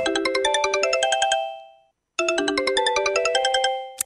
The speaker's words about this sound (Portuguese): Também duas marcas tecnológicas fortes e muito conhecidas se juntaram para criar os telefones Sony Ericsson, que a dada altura, com o modelo Sony Xperia, que por acaso foi um dos meus telemóveis, uh, tinha um toque que também se tornou icónico.